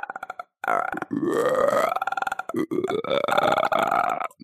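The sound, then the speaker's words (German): A person imitates a frog croak with long, gravelly, belch-like vocal sounds, two drawn-out croaks with rising pitch, separated by a short pause. “Kannst du einen Frosch?”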